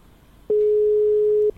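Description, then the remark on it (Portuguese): A single loud, steady ringing tone of an outgoing telephone call sounds for about a second, a flat electronic beep with no talking, then cuts off abruptly. “Não tá chamando muito rápido?”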